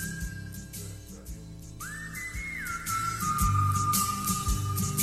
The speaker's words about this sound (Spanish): pero no sabía quién cantaba la canción. Y resulta que la canción no dice nada, solo silban.